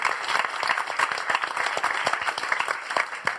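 An audience at the Gaîté Lyrique applauds the crew of a live show steadily, a dense patter of many hands clapping at an even, sustained loudness for a few seconds, with no voices standing out.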